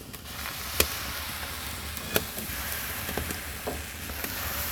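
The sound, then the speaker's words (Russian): Steady frying sizzle hisses throughout while a utensil clinks and taps a few times at irregular intervals as batter for thick flatbread cakes is stirred again and splashed onto a hot skillet set on bricks. No one speaks. “И опять же, тесто, которое у нас готово к выпеканию для наших коржиков, опять немножко подворошим и уже будем плескать на сковородку.”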